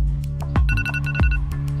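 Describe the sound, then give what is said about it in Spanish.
A phone alarm rings with a quick, repeating electronic melody of bright tonal beeps over a steady low hum, loud, with no voices. “A cada alarma pendejo, en pocos movimientos, abría los ojos y como un autómata revisaba las apps.”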